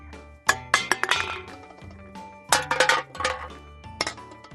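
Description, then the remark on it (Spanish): Metallic clinks and rattles of a tin can being dragged along the ground by cats, coming in two bursts of clattering hits with brief pauses, fairly loud with no voices. “Cada vez que los gatos me arrastraban por el suelo, oía un sonido que salía de mí.”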